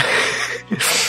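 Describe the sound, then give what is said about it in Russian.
A man's single sneeze: a quick sharp intake, a brief pause, then a loud, breathy burst of noise, with no talking around it. “Я чихнул.”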